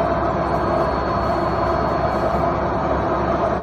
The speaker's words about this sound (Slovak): Ešte na chvíľočku sa vráťme späť k práčke. Ja som vám spomínal, že moja práčka má 95 decibelov. Momentálne, ja mám aj takú názornú ukážku.